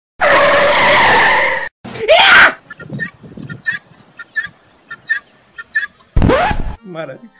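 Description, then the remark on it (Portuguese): A staged reenactment of a car on a road hitting a guinea fowl that ran from the roadside at the car: a long, loud tire screech and a sharp crash-like burst, followed by a rapid series of harsh, repeated guinea fowl cackles, ending with another brief screech. “tinha um, um, um guiné suicida, velho. O bicho tava na outra faixa, eu vinha passando.”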